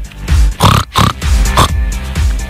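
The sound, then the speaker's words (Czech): A person imitates a pig as the first animal in a game, making a quick run of loud oinks and throaty grunts, several bursts packed into a couple of seconds with no talking. “prase.”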